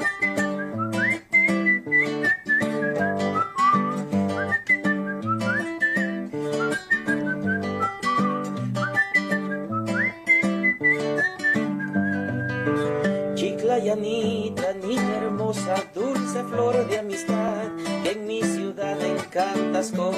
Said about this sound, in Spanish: En género vals, con mucho aprecio para todos ustedes. Con su silbito en vista de que no hay primera, primera guitarra.